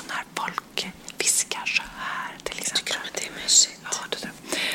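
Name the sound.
ASMR whispering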